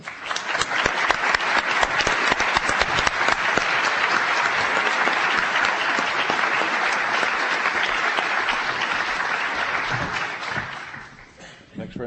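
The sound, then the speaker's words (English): Sustained applause from a sizable audience welcoming Professor Plantinga to give an address on science and secularism at Princeton, steady and fairly loud for about ten seconds before tapering off at the end. “Please join me in welcoming Professor Plantage.”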